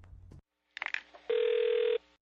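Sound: outgoing telephone call ringing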